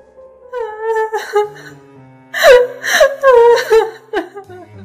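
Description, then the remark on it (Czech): Quiet, whimpering, wavering cries with breathy gasps, starting softer and growing louder in a cluster of sobbing bursts as the crying draws nearer along a hallway; a weak, childlike voice calling for its mother. “Slyšeli jsme, jak se ten tichý pláč přibližuje.”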